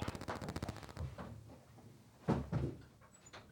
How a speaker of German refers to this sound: Tür zu, schnelle Nummer.